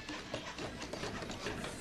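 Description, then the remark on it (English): A dense, steady clatter of construction work, with overlapping knocks, scraping and tool noise running continuously at moderate volume, as 64 hands build a house for the homeless. “64 hands building a house for the homeless.”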